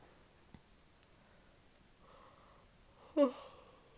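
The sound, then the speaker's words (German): A single yawn: a long, breathy inhale that swells into a short voiced groan near the end. A couple of faint clicks come earlier, otherwise quiet. “Sorry für das Gegene hier.”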